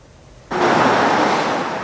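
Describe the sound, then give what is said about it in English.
Street traffic rushes past outside a theater in a steady, fairly loud roar of passing vehicles, cutting in abruptly after a moment of near quiet, with no voices. “This is the only traffic the Stanley Theater saw for 20 months.”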